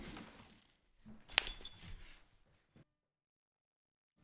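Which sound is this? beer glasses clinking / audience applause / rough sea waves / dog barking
beer glasses clinking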